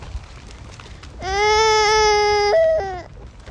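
A small child whines and grumbles in one drawn-out, loud wail lasting nearly two seconds, jumping higher in pitch toward the end before dropping off, with no talking around it.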